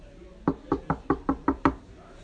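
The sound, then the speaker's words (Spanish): Seven quick, solid knocks on a wooden room door in Guadalajara in the morning, in a steady rhythm and fairly loud, with quiet around them and no voices. “De repente al otro día en la mañana le tocan la puerta del cuarto.”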